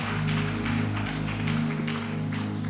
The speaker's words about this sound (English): Please give them a round of applause as they go.